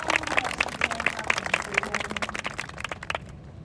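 An audience applauds, a dense wash of clapping with some hands falling into a steady beat, holding at a lively level before thinning and fading out near the end.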